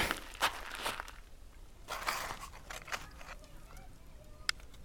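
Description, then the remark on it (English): Scraping and digging in harsh, bone-dry dirt with a rusty trowel, heard as a string of short, gritty crunches and rasps at an uneven rhythm, moderately quiet. “I take up one of Hawthorne's rusty trowels and begin to scrape at the harsh, bone dry dirt”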